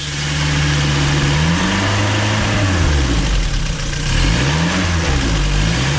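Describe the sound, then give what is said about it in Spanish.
A small SEAT 600 car engine revs and idles steadily, its low harmonic drone rising and falling in pitch through a few throttle swells, loud and continuous with no voices. “Así sonaba el sonido de todo un mítico, el Seitas, el 600.”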